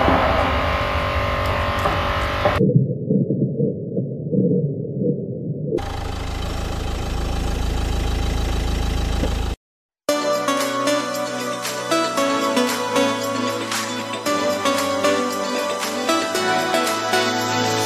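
A pop song intro opens with a muffled, filtered stretch and a noisy build, drops out for a split second, then the full band kicks in loud and bright, with no voices.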